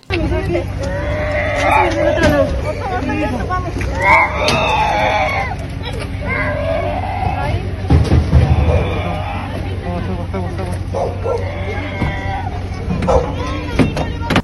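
Young girls being rescued crying and screaming in loud, wavering wails that rise and break repeatedly, a little girl crying out "mamita", with overlapping cries and a constant low hum underneath.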